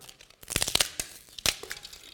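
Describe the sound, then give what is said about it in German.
A CD being broken: a burst of sharp cracking and crinkling snaps, with two clusters of bright, brittle crunches around a second apart, then a few faint trailing crackles. No one speaks. “Und letztendlich ist es so, als Jesus ans Kreuz genagelt worden ist, ist im Grunde auch diese CD zerbrochen worden. Sie ist kaputt gemacht worden, sodass man auch nicht mehr darauf zugreifen kann.”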